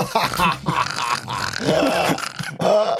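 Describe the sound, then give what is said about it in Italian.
A loud, deep, rasping snore drawn out over several seconds in a few long rumbling pushes, growl-like, apparently a human voice imitating a man snoring at night in a New York speakeasy. “un suono baritonale potente e prolungato. Michael Malloy stava russando.”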